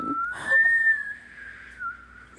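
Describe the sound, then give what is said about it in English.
A person tries to whistle while smiling: a thin, wavering note that slides slightly in pitch, interrupted early by a breathy burst of laughter before the whistle carries on faintly and unsteadily. “trying, trying to whistle while you're smiling doesn't work.”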